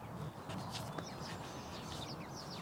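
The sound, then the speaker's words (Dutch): Several birds chirp and twitter in short, bright bursts over a steady outdoor hum, the calls scattered, with no one speaking. “De vogels die je net hoorde, en misschien nog steeds, nou, die geluiden, die klinken mij nou als muziek in de oren.”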